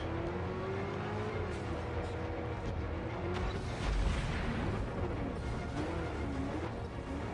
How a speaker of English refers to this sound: Just driving wherever the fuck it wants plowing through concrete pillars. Not as fast as I thought the Batmobile would be. You wouldn't think it'd be able to get up those steps either.